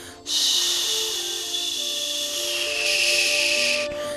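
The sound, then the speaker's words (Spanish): A person voices a steady, breathy 'shhh' hiss imitating the white noise that is played to babies, held evenly for about three and a half seconds with no talking. “Y esa S, que es el infinito, es muy lindo porque es como el sonido blanco que le ponen a las guaguas, que no sé si los que tengan hijos, tú puedes buscar sonido blanco, que es este sonido como de...”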